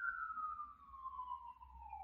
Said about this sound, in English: Sorry, there's a siren going by. Should I just stop?